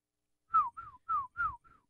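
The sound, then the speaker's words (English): Someone whistles an imitation of a police siren: five quick, falling wails in a steady rhythm, clear, with no talking. “Why why can't I whistle like that? Because it's pretty good sirens impression.”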